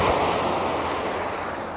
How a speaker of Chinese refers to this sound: 那我们就在这海浪声中结束喽，拜拜。